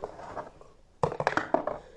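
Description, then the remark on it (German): A standard die is rolled during a Harry Potter-themed board game: after a second of soft, low rustling, a sudden clatter of sharp, irregular clicks as it tumbles and bounces across a hard surface, fading out. “Genau, jetzt würfel ich nochmal.”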